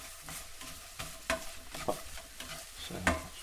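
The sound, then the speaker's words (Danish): A potato egg cake sizzling and crackling in a frying pan on a gas stove, a steady hiss broken by irregular scraping and stirring clatters, with no voices. “Nu får den for meget, kan jeg høre. Nu skal vi lige skrue ned på gassen, og det virker bare.”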